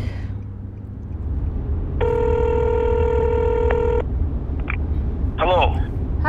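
An outgoing phone call rings: a single steady electronic ringback tone lasting about two seconds, heard over a low, constant rumble, followed by a few brief chirping blips.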